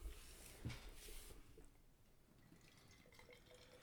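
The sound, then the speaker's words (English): Dark, chocolate-coloured stout beer pours into a glass with a soft, steady glugging trickle and faint drips, quiet, with no one speaking. “So while you're pouring that, I am going to bring up some stats from the Beer Dad and Brewed podcast.”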